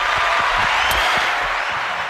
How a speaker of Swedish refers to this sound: Vi ger en applåd. Bravo mm. grabbar.